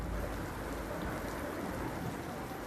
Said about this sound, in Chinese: 他们俩没有看见一大块乌云飘过来遮住了太阳，也没有听到起风的声音，他们甚至没有注意到开始下雨了。